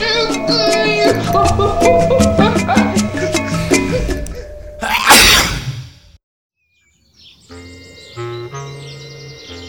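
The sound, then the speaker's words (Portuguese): A single loud, forceful sneeze voiced by a performer bursts out over busy background music, followed by a brief silence before the music returns. “Foi quando novamente me atacou o resfriado eu senti que mais um espirro estava vindo.”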